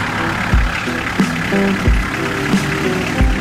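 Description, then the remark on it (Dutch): An old, bright-orange Toyota car engine runs steadily at idle, a low rumbling hum with periodic heavier thumps roughly every second and a faint rattle on top, fairly loud. “Cindy Fransen heeft een oude, knaloranje Toyota.”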